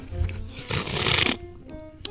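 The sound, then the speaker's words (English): Someone tasting a Salvadoran coffee infused with Sokol Blosser Pinot Noir takes one loud, airy slurp lasting about half a second, hissy and noisy, with softer breathy sounds before it and a faint click at the end. No talking. “So, my tasting notes, let me get a slurp here.”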